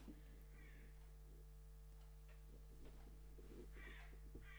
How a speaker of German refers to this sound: Die Krähen, mhm. die kommen immer um 4 Uhr und holen sich ihre Nüsse ab von der Nachbarin.